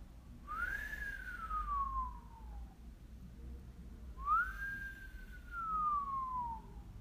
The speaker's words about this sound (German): Das ist die gesunde Funktion der Unterbauchkapsel und übers Pfeifen kann man die meistens ganz, ganz gut abholen und erstmal spüren. Komm, wir pfeifen nochmal und spür das mal genau nach.